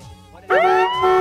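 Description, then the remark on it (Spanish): A loud, blaring car horn honk that swoops up briefly in pitch and then holds a steady, buzzy tone, dips for a moment, and blares again. No one speaks. “Bocinazo Exa.”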